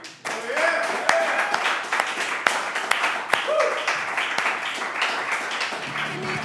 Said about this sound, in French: Fait que, bon, mais l'applaudissement, s'il vous plaît,